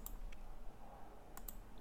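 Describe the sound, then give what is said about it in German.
A few soft, crisp computer mouse clicks, spaced irregularly, as someone clicks to deselect a nightwear filter while browsing clothes, over a faint steady background hum, with no voices. “Ich klick, muss, glaube ich, Nachtwäsche wegklicken, weil.”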